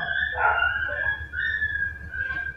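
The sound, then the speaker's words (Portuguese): A dog that cries every night whines and cries at night in long, high-pitched drawn-out tones that rise and fall in a few repeated bursts, over a low background rumble. “Putz, tem um cachorro chorando lá agora.”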